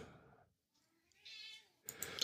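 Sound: cat meowing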